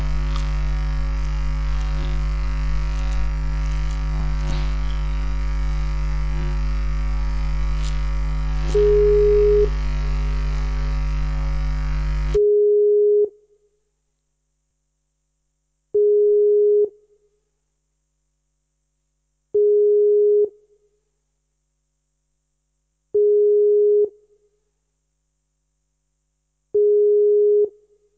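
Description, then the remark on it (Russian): Phone call tones while calling someone back: a dense electrical buzz fills the line, then cuts out, leaving steady ringback beeps, long single tones repeating every few seconds, about six in all, with no talking. “Давай перезвоним, потому что что-то все это очень странно.”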